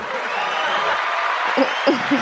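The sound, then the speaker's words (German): A short burst of recorded crowd applause played from a soundboard: dense, steady clapping at even loudness, with a few brief whoops or cheers rising near the end. “Bisschen Applaus muss sein, ja?”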